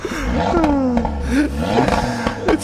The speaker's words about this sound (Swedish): Men han vill ändå visa hur högt kusinens bil ändå kan låta.